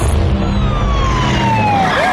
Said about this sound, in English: I hate it when they put sirens in commercial.